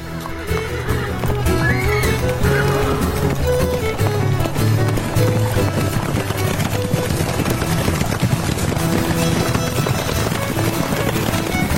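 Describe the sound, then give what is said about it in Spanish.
Horse hooves gallop in a quick, steady rhythm, blended into loud, dense music that plays throughout, with what may be a whinny in the mix. “Coge las riendas de tu caballo que vamos a acercarnos raudos.”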